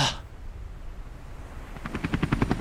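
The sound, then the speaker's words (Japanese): A helicopter sound effect in a radio commercial: rotor blades beating in a fast, steady chop that grows louder over a low rumble, with no voices. “ヘリでお迎えには行きませんがあなたのトラブルに迅速対応”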